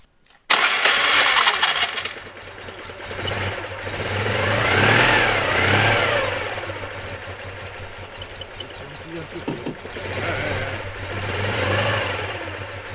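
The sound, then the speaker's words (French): A convertible car engine cranks and catches abruptly, then settles into a steady rumbling idle with a couple of revs rising and falling, fairly loud. “Ah, je veux bien voir le petit bruit du ah démarrage.”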